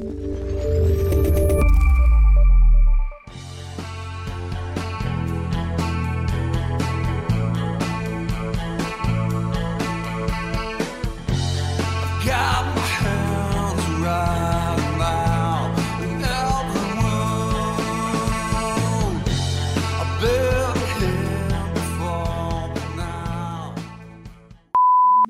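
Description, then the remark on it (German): A loud, dense grunge rock song composed by Google's Magenta artificial intelligence, with distorted guitars and pounding drums, plays steadily for about twenty seconds after a brief low rumble, then cuts off abruptly, followed by a short electronic beep. “Was wir gerade hörten, war keine verschollene Aufnahme von …, sondern eine Komposition der künstlichen Intelligenz Magenta von Google.”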